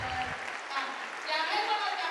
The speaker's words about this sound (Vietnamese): à, dành một tràng pháo tay để cảm ơn bạn